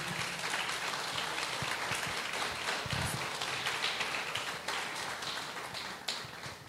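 A crowd applauds steadily, dense overlapping claps forming a continuous bright wash of sound that holds at an even level for several seconds, with no talking over it.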